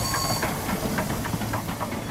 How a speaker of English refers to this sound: So, in the fall of 1882, Hershey hopped a train headed northeast to New York City.